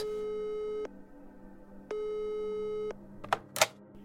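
A telephone ringback tone sounds twice on a call to a university professor in Lidkjøping, Sweden, each a steady, buzzy tone about a second long with a pause between, followed by a couple of sharp clicks as the line connects.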